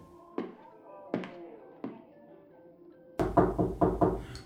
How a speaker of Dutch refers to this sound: Ik klop aan.